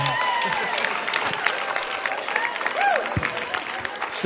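A large audience claps steadily for several seconds, a dense, sustained wash of applause with a few scattered cheers and whoops rising above it.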